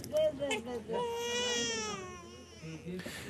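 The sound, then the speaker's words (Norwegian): A young boy in Somalia screams and cries while being weighed, in a high, wavering wail that rises and falls over a couple of seconds, broken by short sobbing breaths before and after. “Men bildet av gutten som skriker mens han blir veid, sier sitt om at Somalia har en lang vei å gå.”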